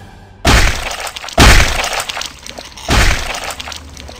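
Three heavy hammer blows smash into a body with a crunching, breaking crash, each hit loud and sharp before ringing off, spaced unevenly with a brief gap before the last strike. No talking.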